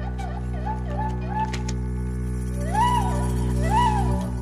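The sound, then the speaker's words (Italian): A friend's pet parrot makes a series of squawky, arching calls, a few soft ones and then two louder bursts, over a steady low hum with no talking. “E così salutiamo il nostro amico col suo pappagallo che non è stato zitto un secondo.”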